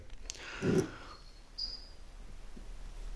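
A faint vocalization from a wide-awake male cat in the background, busy in the living room: a short meow-like cry with a soft thud, followed by a thin high squeak; no one speaks.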